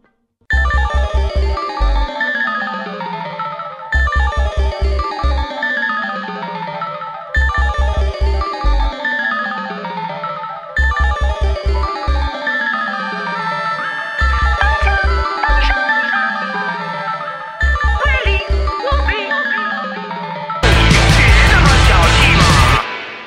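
An electronic track from a musical's soundtrack: repeating phrases of descending synth tones over deep pulsing bass hits, each cycle about three seconds, ending in a dense, noisy distorted burst.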